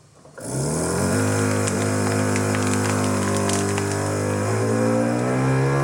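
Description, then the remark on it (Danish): A lidded vacuum sealer machine's pump starts up and runs with a loud, steady motor drone, its buzzing hum holding a fairly constant pitch with slight shifts as it sucks air from a clamped bag of salted corn cobs. “Og så har jeg en, en øh, vakuumsuger her, som er det, som de fleste har.”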